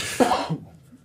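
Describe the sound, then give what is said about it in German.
A single short sneeze or cough bursts out sharply, loud and breathy with a voiced tone, then cuts off quickly into near silence. “Gesundheit. Danke.”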